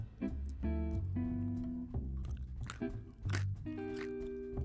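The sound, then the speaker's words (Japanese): Loud crunching and chewing of small, hard Honduran coffee-bean chocolates late at night, with repeated bites and grinding that continue steadily for several seconds, and no talking. “ホンジュラスの、えー、チョコレートいきますこれボリボリ言うんじゃないかな”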